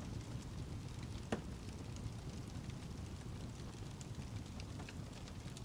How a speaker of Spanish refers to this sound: ¿Por qué el fuego? ¿Por qué una fogata? Porque el sonido que brinda genera un ambiente de paz, de tranquilidad, donde no necesitas mucho Quizás solo una taza de café, un lugar donde pasar la noche, las estrellas, la naturaleza.